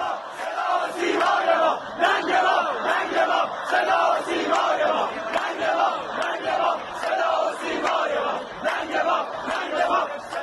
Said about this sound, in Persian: در یک ویدیو که شورای سنفی دانشگاه منتشر کرد دانشجویان همزمان با ورود دوربین و خبرنگار صدا و سیما شعار میدهند ننگ ما ننگ ما صدا سیمای ما